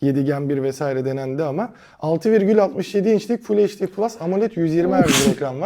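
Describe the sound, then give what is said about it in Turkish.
A single sharp sneeze bursts out near the end, loud, cutting across a man's steady, fast-paced talking that runs through the whole stretch. “Çok yaşa”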